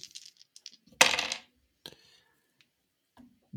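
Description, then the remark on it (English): A handful of dice rattle and clatter onto a hard table as damage is rolled in a tabletop role-playing game: a few light clicks, then one loud scattering burst, followed by a couple of faint tumbling knocks as they settle. “this is going to be a lot of dice and then he's going to grapple you all right.”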